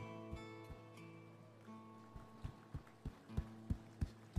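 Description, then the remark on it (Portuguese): A crowd claps slowly and sparsely to imitate the sound of rain, individual claps landing at a loose steady pace and growing a little louder, over a sustained droning hum. “Sabe qual é o som de chuva? Bate palma bem devagarzinho.”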